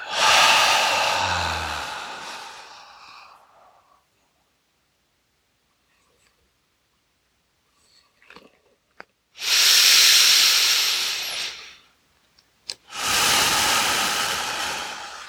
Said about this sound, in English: Here we go on the inhale, breathing up from the earth.